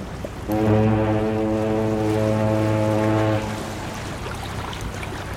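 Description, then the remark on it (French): A boat's deep horn sounds one long, steady blast for about three seconds as a group boards the boat to return home, then cuts off, leaving a low rumble of engine and water continuing underneath. No one speaks. “Le lendemain, toute la petite bande retourne prendre le bateau pour rentrer à la maison.”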